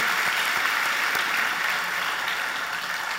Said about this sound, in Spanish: Le damos un aplauso a la hermana Andrea, por favor, que comparte su testimonio.